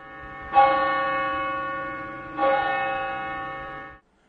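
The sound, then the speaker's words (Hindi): A large bell rings out twice, about two seconds apart, each loud strike leaving a rich, humming tone that hangs in the air and slowly fades. No one speaks. “इसलिए अब घंटा लगाने की जरूरत है ताकि हर घंटे या घंटा देशभक्ति की भावना को जगाता रहे”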